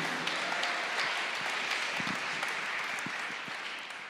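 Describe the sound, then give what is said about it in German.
Steady applause from an audience at a church service, given to the Lord, fills the space, a dense wash of many hands clapping at moderate volume, sustained throughout and tapering slightly toward the end. “Wir geben dem Herrn mal einen Applaus.”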